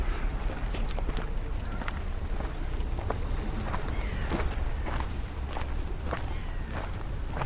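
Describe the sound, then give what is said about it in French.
Footsteps crunch across sand at a steady walking pace, about a dozen soft-gritty steps over a constant low rumble of wind and background noise, with no one talking. “Eh bien, marchons sur le sable.”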